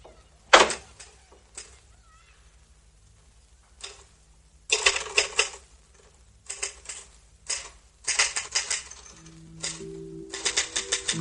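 Rapid clacking of typewriter keys in uneven bursts as a woman sits at a desk typing, with short pauses between flurries and a sharp carriage-like clunk near the start; fairly crisp, no voices.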